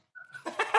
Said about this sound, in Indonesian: lagi ngingu ayam boh kok ada suara ayam berkokok itu